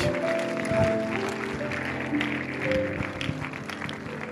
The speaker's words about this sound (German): Lass uns Jesus, dem Rettergott, nochmal einen Applaus geben.